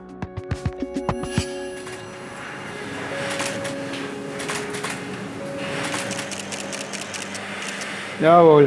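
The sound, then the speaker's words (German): A camera shutter fires in a quick, regular burst of about seven sharp clicks at a fashion photo shoot in the Botanical Garden St. Gallen, followed by the photographer briefly giving instructions over a steady low hum. “Hier klickt eine Kamera und dein Fotograf ja, ah, gibt Anweisungen.”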